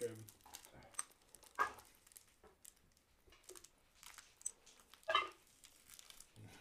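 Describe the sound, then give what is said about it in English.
Dice clatter and tumble across a table in two short, sharp bursts a few seconds apart, with quieter rattling and faint voices murmuring in between. “Quit throwing dice.”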